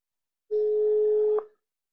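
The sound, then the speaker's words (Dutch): A telephone line tone sounds once as someone calls a person back, a steady mid-pitched hum lasting just under a second, cut off by a short click. No voices are heard. “Eh, oké, hier is hij. Ik bel hem terug.”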